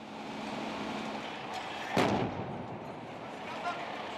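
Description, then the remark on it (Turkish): A sudden sharp explosion bursts out midway through the steady roaring, rushing background of a chemical factory fire in the Nilüfer Organized Industrial Zone in Bursa, followed a little later by a smaller, duller thud. “Kimyasal maddelerin bulunduğu fabrikada patlamalarla birlikte alevler kısa sürede tüm binaya sıçradı.”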